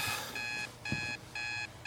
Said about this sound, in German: komm, lass uns aufstehen. Der Wecker hat geklingelt.